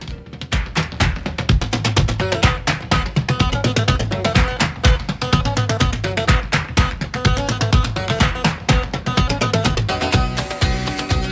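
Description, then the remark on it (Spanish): A radio show's segment jingle plays on its own, a lively instrumental with a steady, punchy beat and bright layered melody that stays loud and full from start to finish. “en Café con Gotas tenemos una sintonía que suena así.”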